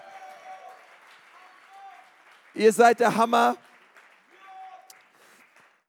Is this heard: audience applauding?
yes